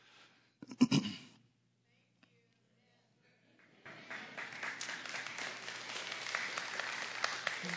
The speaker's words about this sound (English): I'm not sure you should be clapping now.